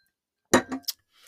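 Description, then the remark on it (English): A drinking glass holding 1800 tequila clinks and knocks a few times in quick succession as someone takes a sip, with bright ringing touches, then a soft faint rustle as it settles. No one speaks. “It's already some in this glass. I'm already ready to go. Let me take a sip.”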